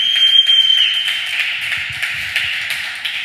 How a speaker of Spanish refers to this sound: Si alguien lo cree, denle un aplauso fuerte al Señor.